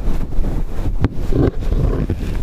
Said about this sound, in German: Gucken wir mal, ob das jetzt klappt mit dem Windschutz. So, schon ist er ab. Ab geht, ab geht natürlich besser wie ran, was aber auch normal ist. So, jetzt haben wir den Windschutz abgemacht.